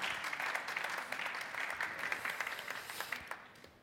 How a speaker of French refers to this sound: On peut les applaudir. Merci pour euh, la pédagogie.